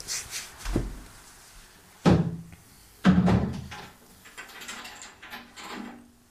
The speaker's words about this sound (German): deswegen mach ich mal die Fenster zu